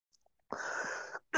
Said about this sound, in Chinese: 比如这个咳嗽，就是这三年带给我的一个变化。